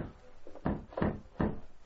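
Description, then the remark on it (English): Three heavy, muffled thumps pound from outside on the door of a train's baggage coach in a steady rhythm, fairly loud, with no voices between the blows. “Inside the coach, the two guards, Crooked Glenn Hopkins and a man named Jim Richmond, heard pounding on the door from outside.”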